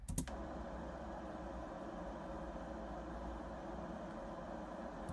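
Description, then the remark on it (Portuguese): A steady wash of brown noise, deep and rumbling with the highs rolled off, running continuously at an even level after a brief click at the start, with no voices. “Depois ainda há um que é o, Bla o Brown Noise, que é este.”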